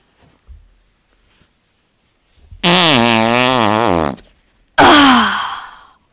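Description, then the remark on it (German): Two loud farts: a long buzzing one with a wavering, rippling pitch, then after a short pause a breathier, noisier one that trails off with a falling squeak. Nobody speaks. “Ich hab gefurzt, jetzt kann ich endlich wieder was machen.”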